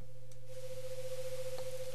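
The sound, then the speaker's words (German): A steady, pure electronic tone hums continuously, a low drone layered with a higher sine note over a faint wash of hiss. Quiet and unchanging, with no voices. “Das heißt, wird dann leiser, blendet sich aus, aber wird höher von dem Ton her und adressiert also dann sozusagen den äh, ja, Beta-Bereich, das heißt so zwischen 14 und 40 Hertz.”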